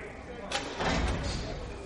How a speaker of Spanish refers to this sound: La celda se abre.